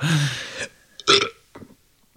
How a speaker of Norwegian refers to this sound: Oi! Oi, oi, Har du gagboll i halsen? Altså, hvis, hvis, du har bløte fiser, så er det en bløt rap. Det er en bløt sånn, Det er mulighet for magesyre her.